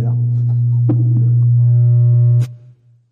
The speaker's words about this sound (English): I hear the hum going on, so I'm,